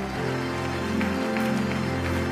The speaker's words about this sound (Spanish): Vamos a darle un aplauso a celebrar al Rey de Reyes, al Señor de Señores, aleluya. Alguien tiene que aplaudir más que eso con autenticidad si crees que Dios habló esta mañana.